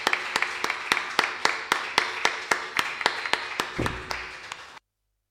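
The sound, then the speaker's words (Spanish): Steady, evenly spaced applause, sharp claps landing in a regular beat for almost five seconds before cutting off abruptly into silence. No one speaks. “Bueno, un aplauso, por aplauso”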